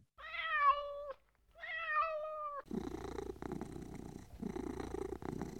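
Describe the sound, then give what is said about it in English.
A domestic cat gives two drawn-out, rising meows, then settles into a steady, rumbling purr that pulses on and off with each breath. “And that's what a domesticated cat sounds like.”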